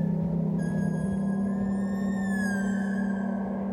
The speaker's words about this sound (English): Listen, their shrieks are softer now, mournful, almost musical.